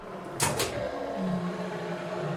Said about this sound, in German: Also du benutzt, du benutzt das Öl jetzt aus der Amphore für die Tür. Ja, genau. Okay, also du ölst die Tür und öffnest die Tür.